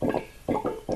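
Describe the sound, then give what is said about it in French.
About 150 litres of fermenting cane molasses, which will be made into rum, bubbles and glugs in a few soft, uneven bursts against a quiet background with no talking. “Et c'est le bruit de la fermentation, fermentation de mélasse de canne qui donnera du rhum dans euh, un mois et demi, deux mois à peu près.”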